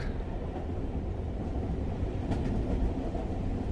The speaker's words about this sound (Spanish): Pero este sonido, recuerden, es el sonido que nos lleva el del tren a pensar